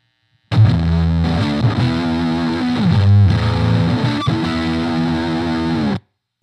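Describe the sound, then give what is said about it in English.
Electric guitar played through a JHS distortion pedal in Crunch mode, set to gain and tone settings similar to an Expandora, giving a crunchy, mid-gain tone, strumming sustained chords with a brief pick accent midway, loud and steady for about five seconds with no talking. “Um, and similar gain and tone settings on the JHS.”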